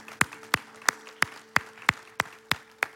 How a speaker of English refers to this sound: Can we give God a hand clap praise today? Thank you, Lord.